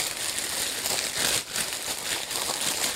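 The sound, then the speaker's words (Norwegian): Steady crinkling of paper as a gift package is unwrapped, with dense, bright rustling crackles that continue throughout and a brief dip midway, no voices. “Vi kan ikke pakke ut alle med en gang.”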